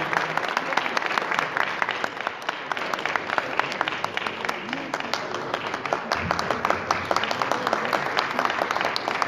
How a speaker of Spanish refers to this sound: Fuerte las palmas para el nieto de Torito Muñoz, que se va a presente de esta noche.